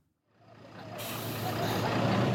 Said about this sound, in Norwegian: En rød buss svinger inn i Viborg på Jylland og blir møtt med jubel og sang.